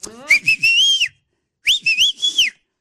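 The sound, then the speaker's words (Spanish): A loud, piercing two-finger whistle, a Latino family's calling whistle, calls out twice, each blast sliding up and then dipping in pitch, with a short pause between them and no one talking. “Me enteré, paisanos, de que cada familia latina tiene un silbido, un chiflido que identifica a cada uno de nosotros.”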